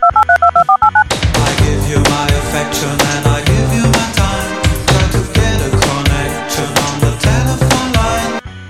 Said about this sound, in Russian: когда необходимо было поднять трубку и набрать номер